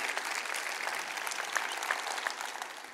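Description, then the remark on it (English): An audience applauds veterans steadily, a dense wash of many hands clapping at an even level for the whole stretch, with no voices over it. “So if you wouldn't mind, can we give them a round of applause for all that they have done?”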